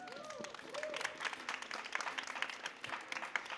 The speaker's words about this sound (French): Alors aujourd'hui, émission spéciale, nous sommes en public. D'ailleurs, on n'entend pas bien le public, peut-être un petit applaudissement.